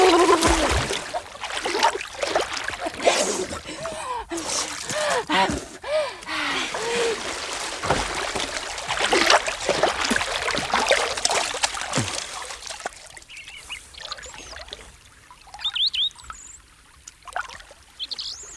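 Water splashes and churns in irregular bursts as someone swims back and forth and dives, with sloshing strokes and a breathy gasp, fading to softer drips and trickles near the end.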